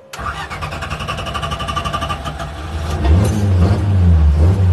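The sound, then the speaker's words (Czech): A car engine cranks and catches, then settles into a steady rumble before revving louder with deep rising and falling roars; no voices. “Tak já myslím, že můžeme vyrazit, co říkáš?”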